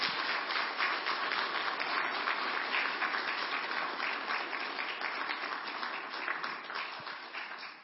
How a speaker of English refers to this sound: I think a round of applause for the search committee is in order again, because I think they did a fabulous job.